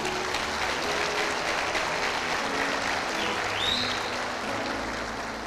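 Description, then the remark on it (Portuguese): A church audience applauds Jesus steadily, a dense and even wash of clapping that holds at a strong level for the whole stretch, with faint murmurs mixed in beneath it. “Forte aplauso a Jesus novamente aí.”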